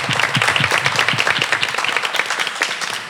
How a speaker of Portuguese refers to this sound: E eu queria agradecer essa plateia maravilhosa, gostosa que tá aqui com a gente hoje, nesse dia. Palmas para todos nós. Obrigada, gente.